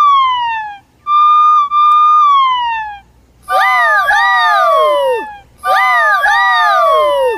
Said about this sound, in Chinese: Right！当我全速前进时，我鸣响警报器，提醒大家让路。